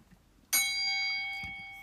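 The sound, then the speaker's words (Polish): A single bell is struck once, sounding clear, its bright metallic tone ringing on and slowly fading after a quiet start. “Czekaj, uderzę w dzwon.”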